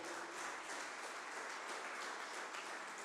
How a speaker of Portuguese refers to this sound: Aplauda ao Senhor Jesus bem alto.